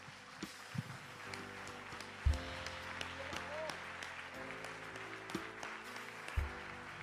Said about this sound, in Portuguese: Você pode dar uma salva de palma para Jesus, querido?